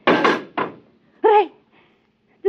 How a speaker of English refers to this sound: door's closed behind us. Try the lock. No, it's no use. Here, let me try. holy smoke, I can't get it open.